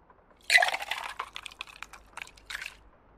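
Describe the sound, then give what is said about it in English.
Water pours into a glass, a splashy, gurgling burst that starts strong and trails off in uneven spurts over about two seconds, with no one speaking. “Here, have a glass of water.”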